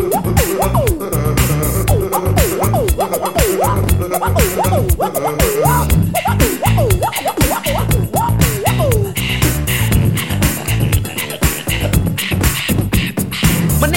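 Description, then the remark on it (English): A steady, loud stream of percussive mouth beats: punchy kicks, crisp snare-like clicks and hissy hi-hats, woven with swooping vocal whoops, keeping a tight groove throughout. “Just listen to the beatbox he will play.”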